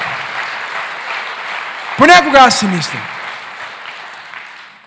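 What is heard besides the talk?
audience applauding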